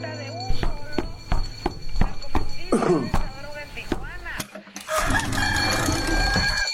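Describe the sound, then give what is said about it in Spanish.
A neighbour's rooster crows and clucks among a series of sharp knocking sounds, then a steady, noisy background with voices takes over toward the end. “¡Ya calla ese animal!”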